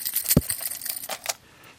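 Metal fishing spoon lures, some weighing 50 grams and some 100 grams, clink together in a quick cluster of bright, jangling hits, with one heavier knock early on, then the sound fades to quiet. No one speaks.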